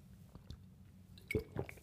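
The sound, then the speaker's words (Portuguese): A quiet sip of tap water: two soft wet gulping sounds in quick succession near the end, following a stretch of low hush, with no talking. “Deixa-me só aqui uma aguinha para ajudar aqui à grande.”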